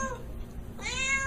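A cat meows, a drawn-out, whiny call with a bending pitch that swells toward the end, heard alone with no talking.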